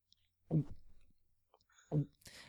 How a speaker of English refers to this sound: You're the expert on swallowing. Why don't you do it? oh, very good. So swallowing is this